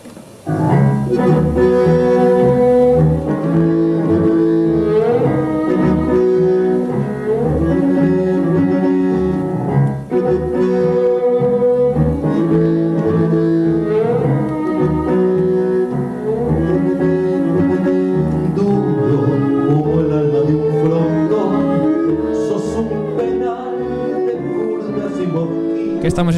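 Modern tango music plays loudly and continuously, with rich sustained melodic instruments and a steady pulsing accompaniment filling the whole stretch without any talking.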